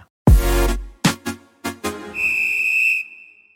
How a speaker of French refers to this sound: On l'écoute après ce jingle.